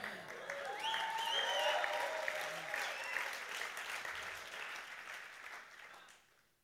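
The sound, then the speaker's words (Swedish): A church audience breaks into sustained applause during a sermon, steady clapping mixed with a few raised voices and cheers, holding for several seconds before fading out at the end. “Come on, jag predikar mycket bättre än vad ni applåderar.”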